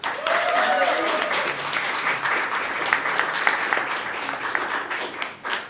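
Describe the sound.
A comedy-show audience applauds a comedian steadily for several seconds, a dense wash of many hands clapping at even loudness. A brief voice rises over it near the start before the clapping thins at the end.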